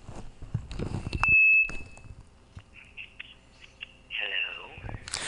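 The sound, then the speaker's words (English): An electronic phone ring sounds as a steady high tone, then a string of short repeated beeps and a warbling burst, with voices talking briefly at the start and end. “is it ringing? Mm-hmm. Yes, it is.”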